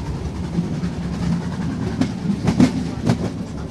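A steam train carriage rumbles steadily along the rails, with a few sharp rattling clacks toward the end over a continuous low rolling drone. No one speaks.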